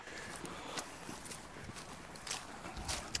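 Steady footsteps crunch along a hard, gritty path of sand mixed with loam or clay at an even walking pace, each step a short scuffing thud, moderately quiet with faint outdoor background noise.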